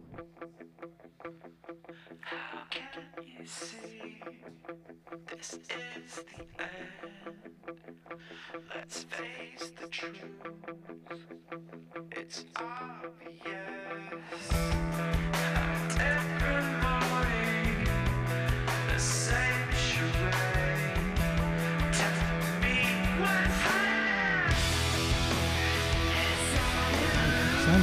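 A heavy rock song opens with a quieter, effects-laden passage, then about halfway through erupts into a loud, dense wall of distorted guitars and pounding bass that continues to the end.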